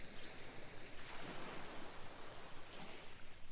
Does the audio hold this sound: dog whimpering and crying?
no